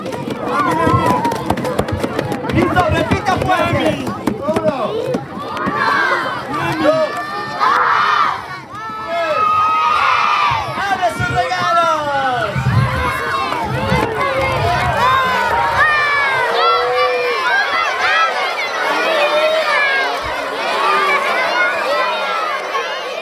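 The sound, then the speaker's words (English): A crowd of children shouting and cheering excitedly as they open gift shoeboxes, their high overlapping voices rising in bursts of squeals and yells, loud, continuing without a break. “When these kids open their boxes, there's so much joy, and you can hear it.”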